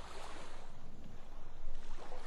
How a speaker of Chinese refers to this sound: 你静静的聆听着海浪悦耳的歌声